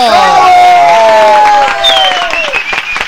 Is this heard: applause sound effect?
yes